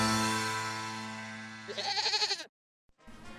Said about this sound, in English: Hey, look, what's that? It's a five-legged goat.